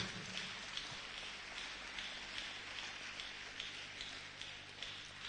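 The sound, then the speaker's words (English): A crowd applauds with a clap offering to welcome a speaker, a dense, steady wash of many hands clapping, holding at an even, fairly loud level for several seconds with no voices over it. “Let us welcome Papa with a mighty clap offering.”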